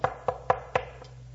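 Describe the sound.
Four quick, evenly spaced, sharp knocks on a door, followed by a fainter fifth tap as the knocking trails off over a low steady hum.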